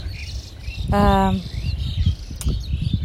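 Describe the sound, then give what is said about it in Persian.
Birds chirp and twitter outdoors, with thin high calls scattered throughout and one stronger, buzzy call near the start, all over a steady low rumble of wind. “صدای باد و البته صدای پرنده من اینه که چون بهشون صبح غذا میدم عادت کردن تا من میام بیرون میان دورم ولی خب صداشون قشنگه”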